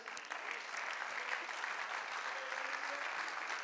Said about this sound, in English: We ought to worship God like it's our last night to worship Him. Praise God. Can we clap our hands?